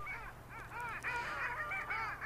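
Long-tailed ducks calling in a busy chorus, overlapping nasal, yodelling honks rising and falling continuously over a low steady rumble, with no talking.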